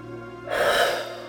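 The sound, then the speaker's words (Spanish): A single deep, airy breath drawn in during a guided breathing exercise, rising suddenly after a brief quiet moment and holding steady, with a faint low hum underneath and no talking. “Ahora una respiración profunda. Uno, dos, tres, cuatro.”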